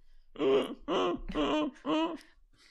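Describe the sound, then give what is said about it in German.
A person imitates a stifled scream with four short, strained, choked vocal bursts in quick succession, fairly loud, with no talking around them. “So, so klingt also ein erstickter Schrei.”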